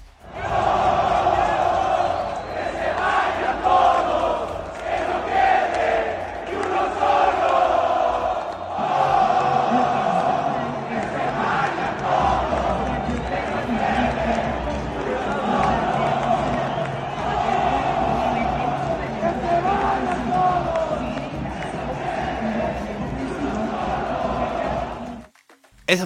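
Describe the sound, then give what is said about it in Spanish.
A large stadium crowd of Toluca football fans chants loudly and continuously in unison, shouting for everyone to go, voices surging together in a rhythmic, sustained roar for the entire stretch. “La afición del Toluca gritando que se vayan todos.”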